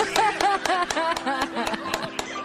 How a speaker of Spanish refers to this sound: ¡Aplausos!